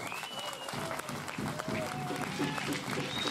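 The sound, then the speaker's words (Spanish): A crowd applauds steadily, a dense, loud wash of clapping that holds for a few seconds, with scattered shouts and whistles rising above it. “No me aplauda.”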